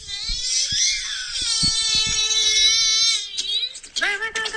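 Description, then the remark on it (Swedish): A three-year-old boy in a tantrum cries hard in a long, sustained wailing howl lasting about three seconds, loud, then breaks into sharper, choppier sobbing cries. “han gick från ett änglabarn till eh, en trotsig jävla treåring.”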